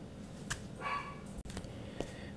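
A neighbor's dog barks: several short, muffled barks scattered over a couple of seconds against a quiet background.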